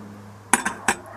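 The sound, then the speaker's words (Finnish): Three quick clinks of yellow and lilac plastic tableware knocking together in a box, light and hollow, with a low steady hum underneath and no talking. “Et mulla on jotain tuollaisia muita, niin niistä sitten hajoilee, kun aina tulee joku äkkijarrutus ja ne osuu toisiinsa tuolla laatikossa, niin olen löytänyt tällaiset kivat muoviset.”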